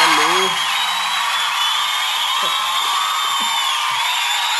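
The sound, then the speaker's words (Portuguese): An audience cheers and claps in a steady, dense roar of applause, with high whistles gliding over it and a few shouts breaking through, loud and unbroken throughout. “Muito barulho, muito barulho, muitas palmas.”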